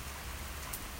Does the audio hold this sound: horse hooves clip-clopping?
no